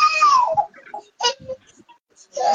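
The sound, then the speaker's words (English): A young boy cries in a loud, high-pitched wail that slides downward, then breaks into shorter sobbing bursts before wailing again at the end. “That's my young boy.”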